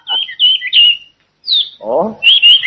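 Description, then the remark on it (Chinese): A hwamei songbird, the palace's prized pet bird, sings bright, high warbling phrases in quick bursts, pauses, then resumes its trilling song after a short spoken exclamation from a man. “那只画眉鸟是宫里的心爱之物，就连太子见了它，也总是流连忘返呐”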